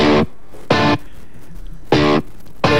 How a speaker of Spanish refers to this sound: que metiste una distorsión.